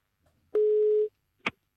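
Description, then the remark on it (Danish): A single steady telephone ringing tone sounds for about half a second as a call is placed to politician Morten Messerschmidt, followed shortly by a sharp click as the line picks up. No one speaks. “Der ser man tager telefonen.”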